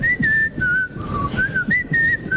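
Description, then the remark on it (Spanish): A person whistles a short tune, the clear, steady notes gliding up and down in pitch over a couple of seconds with no talking. “La gente que todo el día chifla.”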